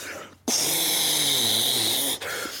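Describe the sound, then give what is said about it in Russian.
A voice imitates the loud, steady hiss of gas rushing into balloons, one long breathy rush lasting about two seconds with a faint throaty undertone, then cutting off abruptly. “И в моменте смотрю направо, вот там типы баллоны, блядь, надувают просто прям.”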